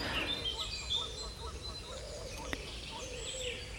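Many birds sing and chirp at once in a busy spring dawn chorus in an oak woodland in England's West Country, overlapping calls over a soft constant background hum, with one sharp click partway through.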